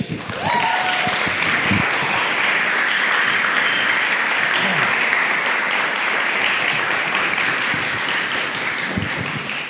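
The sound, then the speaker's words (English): A crowd applauds steadily for about ten seconds, welcoming the next storyteller at a storytelling event, a dense, even wash of many hands clapping at once that stays loud throughout and tapers slightly at the very end. “Uh, uh, please give uh, a rousing round of applause”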